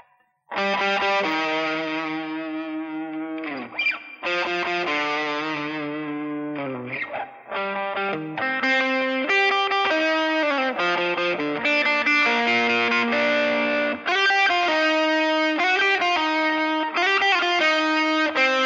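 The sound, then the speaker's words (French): A distorted electric guitar plays a dramatic classical melody alone, with sustained, harmonically rich notes and short phrases separated by brief pauses, loud and close throughout. “nous faire un 20 secondes de la cinquième symphonie de Beethoven à la guitare électrique avec la distorsion?”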